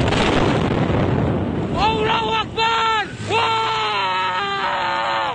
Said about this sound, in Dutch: Bij een olieraffinariedij op Java is een enorme brand uitgebroken. Vijf mensen zijn gewond geraakt en zeker 950 omwonenden zijn geëvacueerd vanwege de brand. Op video's op sociale media zijn enorme vlammen te zien en is een grote explosie te horen